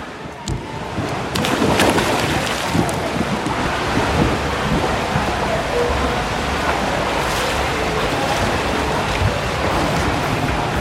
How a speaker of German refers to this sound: Ich ins Kaffeehaus und du ins Wasser. So, dann stürze ich mich jetzt wieder in die Fluten.